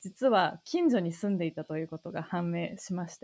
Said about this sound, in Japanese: ちょっと真夏の収録なので、背景にセミの声がすごい入り込んでいるなと 思っているんですが